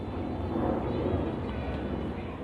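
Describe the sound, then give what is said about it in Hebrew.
A steady, broad rumbling roar of an airplane passing overhead, heavy in the low end and holding at a constant level throughout, with no voices. “אה, יש מטוס, אפשר לנשום, נכון?”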